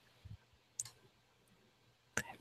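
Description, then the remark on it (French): A few faint, sharp ticks of a clock sound, spaced unevenly and set against a low steady hum, with no one speaking. “J'entends une horloge, euh, j'entends une horloge dans le fond.”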